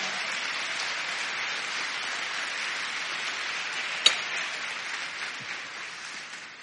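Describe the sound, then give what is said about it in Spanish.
An audience at a church worship service claps steadily throughout as the preacher calls for applause, a dense wash of many hands applauding at a fairly constant level, with one sharp louder clap standing out near the middle. “Dele palmas, dele palmas, dele palmas.”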